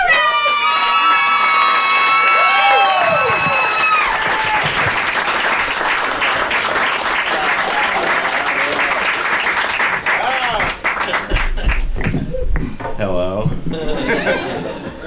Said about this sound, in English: Here for you right now. God damn it. Give a round of applause for Shane Torres!